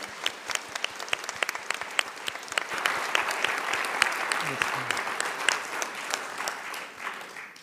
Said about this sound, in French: Euh, également, je vous propose l'applaudir encore une fois pour le remercier.